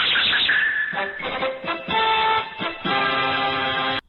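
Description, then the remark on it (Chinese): The Doraemon sound effect, from the robot cat of Fujiko F. Fujio's manga Doraemon: bright, warbling synthetic tones that hop between pitches in short steps, fairly loud and continuous for about four seconds before cutting off abruptly. No one speaks. “哆啦 A 梦嘛，这个音效，那它以前多益是这个叮当或小叮当，是藤子不二雄的漫画作品《哆啦 A 梦》中的主角。”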